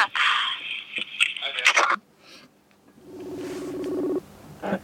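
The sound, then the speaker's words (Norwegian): A telephone number is dialed, with a quick run of clear keypad beeps, then a steady electronic tone as the line connects. “Du må prøve å ringe ham.”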